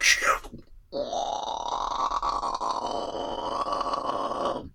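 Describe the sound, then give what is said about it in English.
A big door creaks open in one long, drawn-out groan lasting several seconds, loud, apparently a voice imitating the creak, after a brief rustle at the start. “Okay, let me open big door.”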